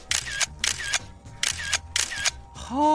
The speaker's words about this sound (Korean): 나는 인생사 다 건져주는데 너는 그냥 대충 찰칵찰칵찰칵찰칵 뭐해?